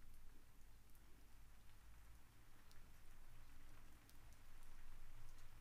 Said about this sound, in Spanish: Y lentamente con los segundos empezaremos a escuchar una leve, leve lluvia.